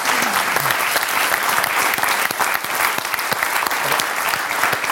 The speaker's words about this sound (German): Sofort Applaus.